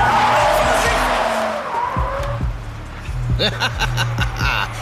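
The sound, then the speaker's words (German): A car that was approaching fast skids hard with squealing tires, a loud sustained screech over rumbling engine noise, followed by further brief tire chirps and mechanical clatter as it comes to a stop. “Äh, wenn er uns abholen möchte, dann sollte er das Auto langsam mal bremsen.”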